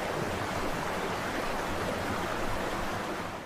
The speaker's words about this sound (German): Na, das war ziemlich laut, nicht wahr? Wisst ihr, was es ist? Genau, es ist ein Wasserfall.